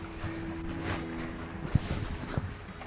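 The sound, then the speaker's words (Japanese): Soft, steady rain patters, a continuous hiss broken by a few sharper drops, with a faint low hum underneath and no one speaking. “今日もちょっと雨音が入ってる日ですけれどもね、何卒よろしくお願いします。”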